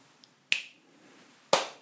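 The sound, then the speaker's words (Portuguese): Two crisp finger snaps, evenly spaced about a second apart, each a sharp bright click with a brief ring-off, with no talking around them. “Eles botaram várias pessoas numa, numa sala completamente isolada acusticamente e eles colocaram uma pulsação, assim, por exemplo, uma pulsação que não tinha um, um, um clique uh, mais um, ah, enfático do que outro.”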